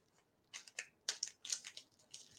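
Crinkling and rustling of a plastic chocolate wrapper as someone pulls and struggles to tear it open, in a series of short, irregular bursts with no voices.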